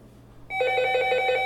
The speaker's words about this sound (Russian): Вот телефон зазвонил, да? Вот, спугнул. Спугнул, прервал, прервал.